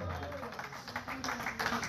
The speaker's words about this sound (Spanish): Alguien déle palmas a Dios.